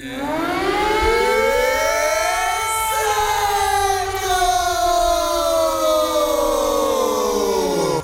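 An air raid siren wails steadily, its tone sweeping up and then slowly falling, loud and continuous throughout with no voices over it.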